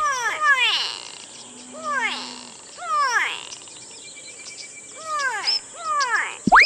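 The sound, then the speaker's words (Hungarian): A voice imitates the call of a brown noisy bird: harsh, descending squawks come in five short bursts of two or three, separated by brief pauses, fairly loud. “A műsorszám barna lármás madár megjelenítést tartalmazott.”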